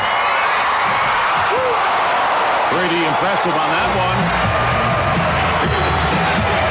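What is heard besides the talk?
crowd cheering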